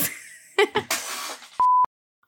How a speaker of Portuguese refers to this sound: Ai, dois segundos que eu preciso atender o telefone, vou pausar aqui.